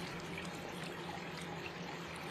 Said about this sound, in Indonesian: Coba kau dengar aliran sungai.